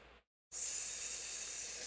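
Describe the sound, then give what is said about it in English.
A person imitates a snake, pushing out a long, steady, loud hiss. A short burst of softer noise and a brief silence come just before it. “snake. That's not as. That's, just an animal.”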